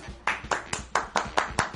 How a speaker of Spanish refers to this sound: Me encanta que solo se escuchen dos eh, aplausos de dos personas nomás.